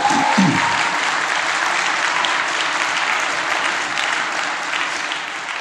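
An audience applauds steadily for several seconds, a dense, even wash of many hands clapping that holds its loudness and eases slightly at the end. A brief voice sounds at the start.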